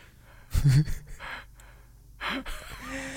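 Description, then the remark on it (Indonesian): A drawn-out yawn with a low voiced groan, followed by quieter breathy exhalations and faint vocal noises. “ngopo ya eh nguap lo dan anu ya Mas Eh Nular nular ya”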